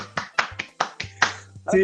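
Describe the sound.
Several sharp, separate hand claps in a quick, slightly uneven rhythm, a brief scattered bit of applause, with a low steady hum underneath and a voice starting at the very end.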